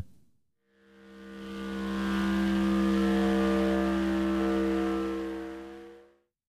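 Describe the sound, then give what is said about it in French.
A steady motorboat engine drone, processed with light EQ, edits, fades and Ableton's erosion effect for a gritty, dirty, distorted texture, swells in, holds its humming tone for several seconds, then fades away. No one speaks. “donner ce côté granuleux et sale que l'on entend en fond sonore, j'applique l'effet érosion d'Ableton.”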